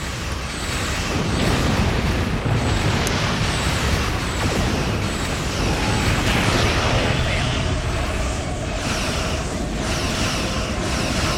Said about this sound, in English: Yeah, all, I also like the explosions. They're very good explosions.